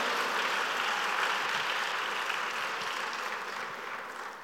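An audience applauds steadily, a dense wash of many hands clapping at an even level throughout, tapering slightly at the end, with no voices over it.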